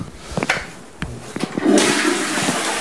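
A few short clicks and knocks, then a toilet flushes with a sudden loud rush of water that keeps roaring steadily until the end, with no talking.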